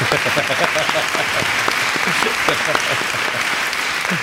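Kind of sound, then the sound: crowd, applause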